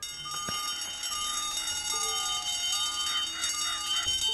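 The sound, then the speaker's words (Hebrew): An alarm bell rings steadily and loudly for several seconds, a continuous metallic clangor with shrill overtones and faint tonal whines layered beneath it. “קול של פעמון אזעקה.”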